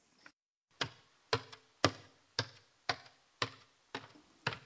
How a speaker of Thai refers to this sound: นี่เป็นเสียงคนเดินขึ้นบันไดครับ คำเรียนเสียงนี้คือตนตม